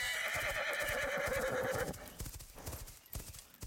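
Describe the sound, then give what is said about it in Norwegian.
A horse whinnies loudly for almost two seconds, its shrill, wavering call rising over a steady clatter of hooves that keeps going after the neigh fades. “Eller en vrinskende hest som alle barna kan ri på, og som er kjemperask.”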